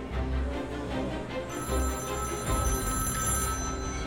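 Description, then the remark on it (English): A telephone bell rings steadily over a dense, busy background, the ringing growing more prominent partway through and continuing to the end without pause; it is a call at a lobby front desk for reporter Don Bolles. “There was a phone call for him.”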